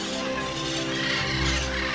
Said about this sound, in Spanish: Escuchen, escuchen. Son bandadas de loros que vuelan sobre la selva. Forman como como nubes verdes.